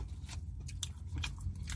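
Wet, crunchy chewing of chicken while eating in a car, a series of short irregular bites and smacks over a low, steady rumble, with no voices.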